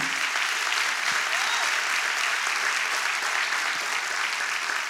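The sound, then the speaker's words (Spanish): An audience applauding loudly and steadily for the Lord, a dense wash of clapping hands without pause for the full stretch, with no clear voices standing out. “Déselo fuerte al Señor.”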